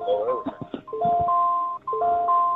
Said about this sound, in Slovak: zase znieš dobre, lebo teraz si nám zapol takú zvonkohru, že dobre sa ťa počúva zase.